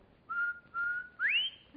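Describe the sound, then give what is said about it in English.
A person whistles a short tune of three clear notes: two steady tones of the same pitch, then a final note that slides upward. No one talks. “You know, she can't whistle, so I got to go”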